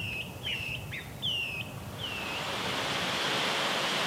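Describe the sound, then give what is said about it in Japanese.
Tanadashi Fudo Falls in Gunma Prefecture, Japan, roars steadily as it pours down huge rocks, a dense, unbroken rush of water. A few clear bird whistles ring out over it in the first half before the torrent swells and fills everything. “今朝は巨大な岩から流れ落ちる滝の豪快な音群馬県にある棚下不動の滝それではお聴きください”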